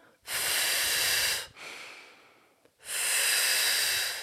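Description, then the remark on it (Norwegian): Breathy airflow with no talking in a breathing exercise demonstration: a strong, steady blow outward, as if blowing on hot soup, a softer drawn-in breath, as if smelling a flower, then another forceful blow. “Og da én blås på varm suppe. To, lukt på en blomst i den rekkefølgen.”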